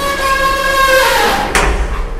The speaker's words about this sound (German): Bitte nicht jetzt, denkst du noch, als du den Knopf neben der Fahrstuhltür drückst. Kurze Zeit später hörst du das charakteristische Ding und es öffnet sich mit einem metallischen Knarzen die Schiebetür.